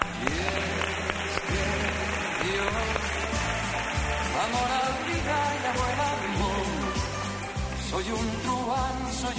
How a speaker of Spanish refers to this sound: Voy a pedir un aplauso para …, por favor.